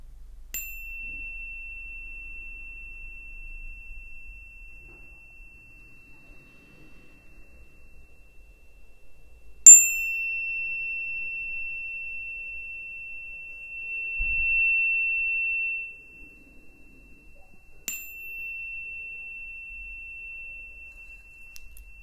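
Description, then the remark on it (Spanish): A meditation bell is struck three times, about nine seconds apart, during a breathing meditation, each strike leaving a clear, pure tone that hangs and slowly fades amid quiet. “Cada toque de la campana es una respiración profunda.”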